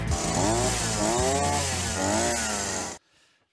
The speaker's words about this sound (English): There it is, the whippersnipper.